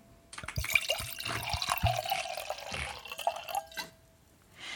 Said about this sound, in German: Dann trinke ich ihn pur. So, ich schenke den hier mal ein.